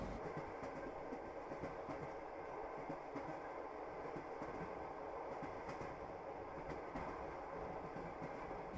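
Steady rumble from inside a moving train carriage at night, with wheels rolling over rails in a continuous clatter and faint rhythmic clicks. The noise is constant, with no voices.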